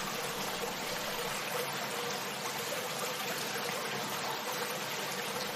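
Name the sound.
river water flowing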